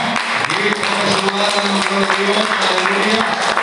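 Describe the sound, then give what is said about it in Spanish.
A church audience claps steadily in applause to the Lord, dense and loud for the whole stretch, with voices calling out and a sustained tone humming underneath the applause. “un aplauso al Señor, hermano.”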